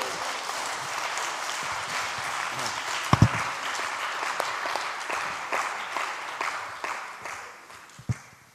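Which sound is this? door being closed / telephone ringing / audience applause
audience applause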